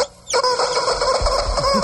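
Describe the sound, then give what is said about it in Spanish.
Dianita's rooster crows with a hoarse, raspy voice, one loud call that starts after a brief quiet moment and stretches on, strained and rough, to the end. “Está ronco el gallo de Dianita.”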